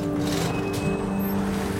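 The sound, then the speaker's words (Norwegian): A truck's engine drones steadily and loudly, a constant low rumble with a humming tone, as the truck drives straight toward a shield wall of soldiers in Kosovo in 2004, with no pause or voices. “Men plutselig styrer en lastebil rett mot skjoldborgen.”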